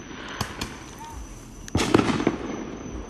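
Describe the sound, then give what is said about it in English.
Fourth of July neighborhood fireworks pop sporadically at night, a few sharp bangs early on, then a louder rumbling cluster of bursts and crackles midway, with a steady high tone and faint background chatter. “And I wanted to share a piece of the fireworks with you, even if it's only the audio here.”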